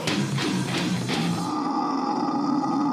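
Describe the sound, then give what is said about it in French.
A death metal singer's harsh, guttural growl that sounds like a pig's grunting, rough and loud, with rhythmic pulses for the first half before settling into a sustained, gravelly roar. “Le chanteur chante comme un cochon”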